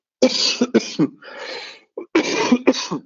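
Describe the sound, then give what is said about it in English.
A person coughs hard in a rough series of bursts, about five or six harsh coughs, with a brief pause midway before a final cluster. “And um, I'm going to cough now, I'm afraid.”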